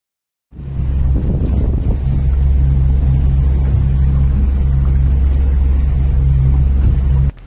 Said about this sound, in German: Was ihr gerade gehört habt, ist auf einem Boot. Und ich bin nämlich jetzt äh, an einem See, ja genau. Und ich war auf dem Boot und es ist mega schön hier.